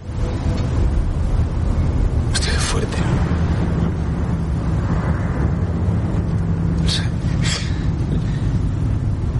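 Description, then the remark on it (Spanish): Steady, loud low rumble of a hearse driving slowly along a road with two other vehicles, heard from inside the vehicle, with a voice speaking briefly over the constant engine and road noise. “conduce el coche fúnebre”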